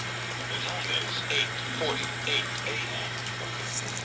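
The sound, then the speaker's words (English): Water jets churn steadily in an ice bath tub, a constant rushing wash over a low motor hum, with brief muffled voice sounds occasionally surfacing through the noise. “Turn the water off. Turn the jets off.”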